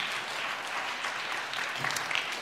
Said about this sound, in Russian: Вы здесь первый раз, вон там первый раз, еще там первый раз. Дайте им аплодисменты все, кто пришел первый раз.